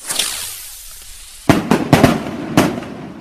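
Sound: fireworks bursting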